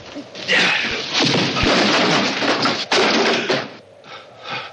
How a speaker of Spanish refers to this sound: Los dos hombres comienzan una pelea y Barner lo arroja contra un barril y cae al suelo.